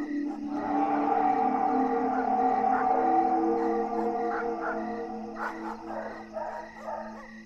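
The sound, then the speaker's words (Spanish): Dogs from all the houses howl together in long, overlapping wails, with a few sharper barks breaking in near the end. The chorus is steady and fairly loud, with no voices. “Los perros de todas las casas ladraban y aullaban.”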